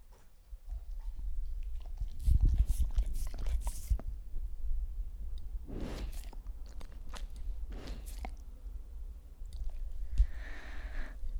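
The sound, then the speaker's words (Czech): A dog chews noisily, with wet, crunching bites coming in irregular bursts and short pauses over a low, steady background rumble. “To je můj pes.”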